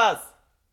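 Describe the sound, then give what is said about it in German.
A single short sheep bleat, a brief wavering call that drops in pitch and fades quickly into silence, heard on its own with no talking. “Ein Schaf hat gemäht.”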